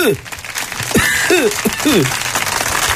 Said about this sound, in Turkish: Alkış falan ver bu adama. bir ver bir alkış ver ya hiç.